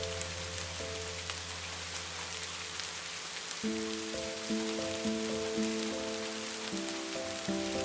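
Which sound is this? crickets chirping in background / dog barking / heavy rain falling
heavy rain falling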